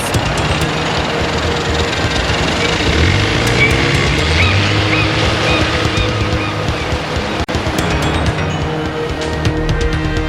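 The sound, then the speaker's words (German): A motorboat engine roars steadily and loudly as the boat races out to sea toward an island while darkness falls, a continuous throbbing drone with rushing noise, holding constant throughout with no voices. “Der seltsame Sam jagte mit dem Motorboot in die See hinaus.”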